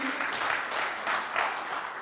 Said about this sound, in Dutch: Applaus voor degene die dit geschreven heeft. Ik was het niet.